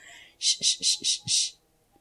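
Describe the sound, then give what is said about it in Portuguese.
A person makes five quick, rhythmic shushing bursts, breathy hisses of air let out through the mouth and pushed through the teeth, fairly loud, with the last one held a little longer before silence. “deixando que o som saia através dos dentes, naquele barulhinho que é tão instintivo quando a gente está com uma criança no colo chorando, a gente faz.”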